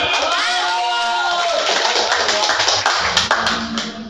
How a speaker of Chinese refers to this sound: 我们给掌声